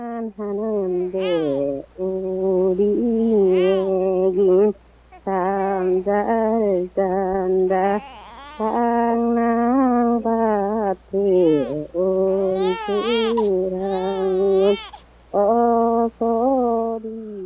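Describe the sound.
An elderly woman from Pyeongan Province, Korea, sings a slow folk lullaby alone and unaccompanied, her wavering voice fairly loud, with long drawn-out phrases broken by brief pauses for breath.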